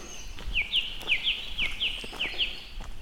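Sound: birds singing in woodland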